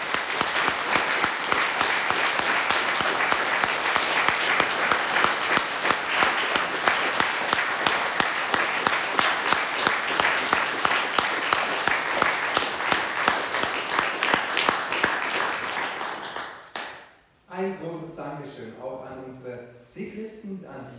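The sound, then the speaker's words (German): Loud, sustained applause from a crowd at a church service after a Christmas play, dense and steady clapping for about sixteen seconds before it fades out and a voice begins speaking. “Aber ich finde, ihr habt das trotzdem wirklich toll gemacht und ihr habt einen ganz, ganz großen Applaus heute.”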